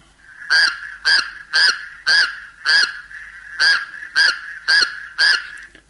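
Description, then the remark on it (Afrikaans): A Lawaai rough toad (lawaai skurwepadda) calls with a steady series of about nine loud, harsh, honking croaks, each short and evenly spaced, with brief gaps between them and no talking. “Mens kan sien hoekom hy die lawaai skuwe padde genoem word.”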